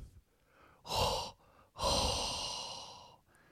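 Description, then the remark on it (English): A loud, exaggerated hot-breath exhale blown right into the microphone: a quick huff followed by a long, airy, drawn-out breath, unaccompanied by talk. “and you know what time it is. Hot breath.”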